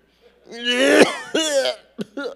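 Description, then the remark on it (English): A voice imitates a string of coughs, fairly loud: a long rasping bout followed by a few shorter, sharper hacks in quick succession, with no other sounds around them. It imitates 40 people all coughing in a cramped house church room in India. “So I was in this room with 40 people and everybody was coughing.”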